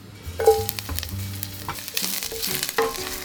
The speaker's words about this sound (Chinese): 拿出一小块姜，去皮后切成片。然后加入锅子，倒入少许的油，油热后放入姜片爆香。